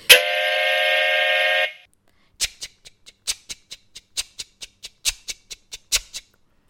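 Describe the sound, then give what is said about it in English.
A loud, steady train whistle blasts for under two seconds, then stops, followed by a quick series of sharp rhythmic clacks. No voices are heard. “They blew their whistles loudly”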